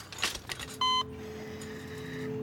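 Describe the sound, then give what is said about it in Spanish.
A single sharp electronic beep from a hospital monitor rings out clearly after some brief rustling, then a steady low electrical hum carries on underneath; otherwise quiet. “Y ni hablar de ese pitido constante.”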